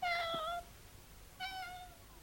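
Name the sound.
cat meowing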